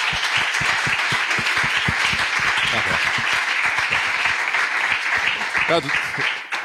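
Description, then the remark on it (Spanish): A crowd claps steadily and loudly for several seconds, a dense patter of many hands, with a few voices briefly calling out over the applause. “Así que, por favor, un aplauso aquí, que peinado que es.”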